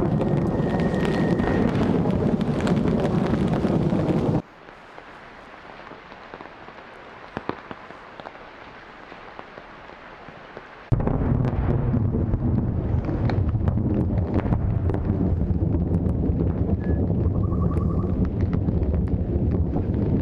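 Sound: thunder rumbling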